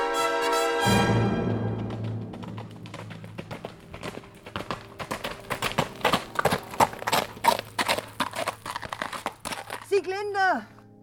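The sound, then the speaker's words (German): Horse hooves clip-clop in a fast, uneven run of sharp knocks lasting several seconds, following a sustained tonal sound at the start and ending with a brief wavering, whinny-like cry. “Komm auf mein Pferd.”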